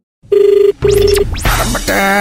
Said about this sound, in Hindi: अरे फोन जल्दी उठाओ अब मेरे पास अरे वक्त बहुत कम है